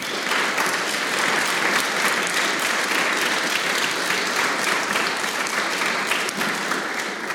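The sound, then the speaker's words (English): Steady, sustained applause from an audience, a dense wash of many hands clapping at an even loudness throughout, with no speech over it. “which is actually a demonstration of the love of Jesus and is worth honoring and applauding and blessing and thanking.”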